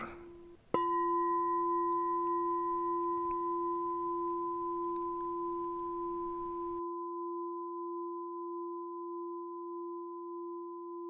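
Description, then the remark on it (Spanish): A singing bowl is struck once by falling water drops and rings out in a long, steady, layered hum that fades only slowly over many seconds, with no one speaking. “Ellas hacen sonar el cuenco.”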